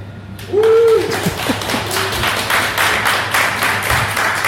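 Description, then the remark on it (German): An audience claps steadily for several seconds, a dense patter of many hands filling the room, with a short whistle-like tone near the start. “Wir haben das schon mal gemacht und es ist nächstes Mal seltsam für mich, dass hier Leute klatschen hin und plötzlich ein Zug einfährt, wie man auch auf der Aufnahme hören kann.”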